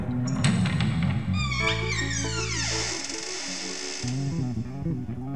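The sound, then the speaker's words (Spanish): An old trunk lid creaks open with a drawn-out, groaning squeal whose pitch slides and wavers over a low rumble. The sound is fairly loud, with no voices. “se está abriendo el baúl.”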